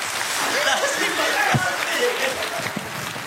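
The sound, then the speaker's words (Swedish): A crowd at ESA headquarters bursts into steady applause and cheering after confirmation from the Philae lander, a dense wash of clapping with excited voices and shouts mixed through, holding at an even, loud level for the whole few seconds. “Ni hör hur ESA-högkvarteret exploderar i applåder och jubel efter att bekräftelsen från landaren Filae kom.”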